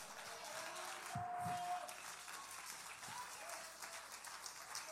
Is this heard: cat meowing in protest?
no